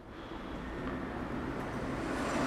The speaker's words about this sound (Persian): اون ماشین رو ببین. دیدی؟